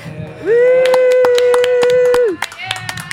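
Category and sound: crowd, applause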